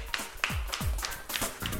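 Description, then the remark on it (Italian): A handful of sharp, separate claps for the character Zorro, about six in under two seconds at an uneven, unhurried pace, like a brief, sparse round of applause with no voices. “Grande applauso a Zorro, grazie.”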